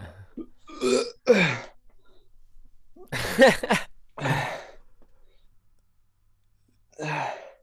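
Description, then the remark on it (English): A loud burp, let out after finishing a bottle, rumbles out in the middle of several short bursts of laughter and breathy vocal sounds, with quiet pauses between them. “that was a burp you just let out though.”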